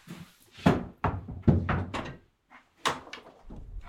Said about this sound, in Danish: Så skal vi have fat i døren, for når det blæser sådan, så giver det gennemtræk, fordi der jo er en port.